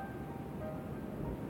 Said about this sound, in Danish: Der er helt stille i møllen nu. Det eneste, man kan høre, det er lyden af vinden, som blæser udenfor.